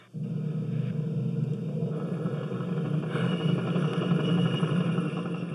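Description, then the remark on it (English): A helicopter drones steadily and loudly throughout a simulated combat scene set in Iraq, a dense low rumble with a constant mechanical hum layered over it, unbroken, with no voices. “So the helicopter sound is definitely jarring.”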